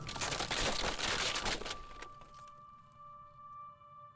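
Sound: car crash collision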